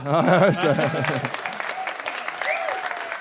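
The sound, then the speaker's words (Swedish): A man speaks briefly, then an audience at a venue in Linköping breaks into steady applause for a performer finishing his set, a dense patter of many hands clapping at moderate volume that carries on to the end. “så en, en applåd för han.”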